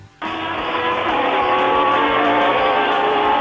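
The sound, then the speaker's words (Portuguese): After a brief quiet moment, loud Formula 1 race cars suddenly roar in, a dense, sustained engine howl mixed with screeching tire squeal, with no voices. “fritadas de pneus, impossível de escrever, tem que realmente ver o vídeo para entender o que estamos falando”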